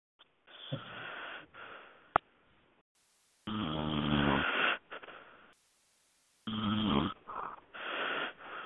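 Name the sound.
loud snoring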